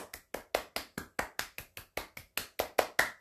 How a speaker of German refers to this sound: Ein Applaus bitte.